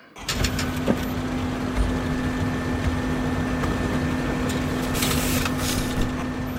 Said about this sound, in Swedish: Men jag tänker att vi börjar med ett ljud som de flesta känner igen. En vanlig, hederlig kontorsskrivare.